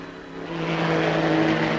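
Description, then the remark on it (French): Race car engines roar loudly in a steady, buzzing drone that swells slightly as they accelerate after a slowdown of several laps, with broad noise around the engine tone and no voices; from a French newsreel of 16 June 1955. “Après un ralentissement qui a duré plusieurs tours, les bolides ont repris tous leurs droits.”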